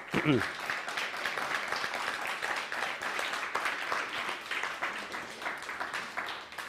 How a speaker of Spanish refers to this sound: Un fuerte aplauso, por favor, a todas las naciones. Vamos.